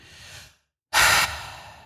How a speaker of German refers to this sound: atmet tief ein.